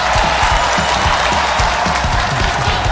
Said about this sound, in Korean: 늘 우리와 그런 일을 해주시는 패널 여러분들 모시겠습니다. 박수로